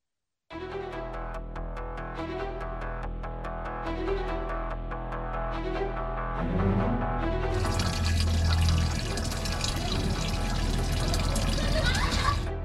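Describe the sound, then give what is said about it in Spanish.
Water runs into a bucket, starting as a trickling splash over a low steady hum, then swelling into a louder, continuous gushing rush as it fills. “carga en sus hombros cubetas con agua para llevarlas a su casa y utilizarlas para las labores domésticas.”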